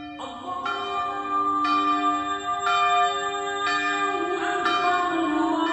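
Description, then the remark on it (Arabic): Church bells ring out in a steady peal, struck about once a second with rich, overlapping tones that hang and blend together. Fairly loud, with no voices. “عندما تعانق اجراس الكنائس تكبيرات المساجد تنطلق نفحات الايمان من كل مكان”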